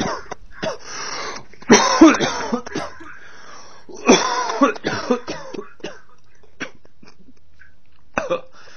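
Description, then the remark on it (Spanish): A person coughs in a few harsh, rasping bursts, two clustered fits a couple of seconds apart, then one short final cough, with quiet pauses between and no talking. “Imaginemos que en nuestro entorno hay una persona infectada y que tose o estornuda emitiendo secreciones sin control.”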